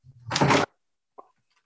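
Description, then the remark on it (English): A drawer slides open with a broad, rough scraping rush lasting about half a second, followed moments later by a short knock as it stops. Fairly loud, no voices. “in drawers next to me. Shoved in the uh, drawer right now.”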